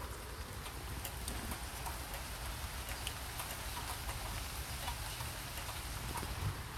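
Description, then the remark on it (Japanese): Steady rain falls outdoors, a dense, continuous hiss with scattered droplet ticks and patters on surfaces, holding an even, moderate level throughout with no voices. “今日はこちら雨降りでございます”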